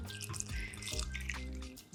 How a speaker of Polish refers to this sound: Ok, teraz e, pokażę Wam, w jaki sposób działa ten nasz pływaczek, dędaczek. Włożymy doniczkę w osłonkę i w momencie, nalewania wody